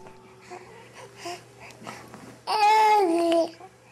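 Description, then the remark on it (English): A four-month-old infant, recorded for a study on categorization in young babies by psychologist Lisa Oakes, babbles and coos softly for a couple of seconds, then lets out a louder, sustained squealing vocalization with rising and falling pitch before it stops. “This is sound from a study of four month old babies done by a psychologist named Lisa Oakes.”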